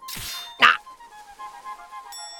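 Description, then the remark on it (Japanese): A quick whooshing swing ends in a single loud thwack as a pirate's raised cutlass bites into a wooden obstacle on a ship's deck and sticks fast, followed by a faint, steady metallic ring that lingers. “海賊の振り上げたカトラスが、甲板の障害物に刺さり、抜けなくなる。”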